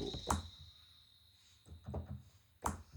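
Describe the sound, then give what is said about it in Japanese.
A thin, clicky bass drum plays back through PC speakers, a few sharp hits spaced unevenly across a few seconds, with the low end not coming through at all and a faint steady hum underneath. “あれあれバスドラのバあバスドラ PC から聞くとこんな音になった、なんかあーローがねで全然出ないよねクリック音みたいなのしか出ない”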